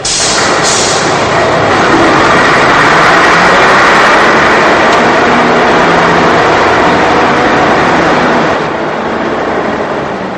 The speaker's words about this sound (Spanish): El autobús sale de las cocheras.